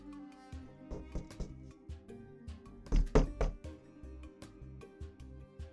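A series of sharp, metallic knocks and rattles of a door chain being banged against the door of a mansion by a king, irregular in rhythm with a louder cluster in the middle, with no talking.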